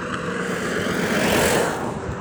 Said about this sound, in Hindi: इसी जंगल के पास एक सड़क है जिस पर कोई आप आते जाते वाहनों की आवाज़ सुन सकते हैं